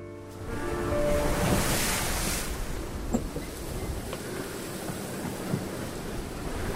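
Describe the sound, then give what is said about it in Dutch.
Broad, steady rush of Atlantic Ocean waves with wind blowing across the microphone, heard from a sailboat crossing the ocean, swelling in the first seconds then holding steady, with a few faint knocks like the boat creaking on the water. “Kom, we stappen in onze zeilboot en steken de Atlantische Oceaan over.”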